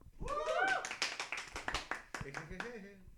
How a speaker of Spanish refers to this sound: Un aplauso, por favor.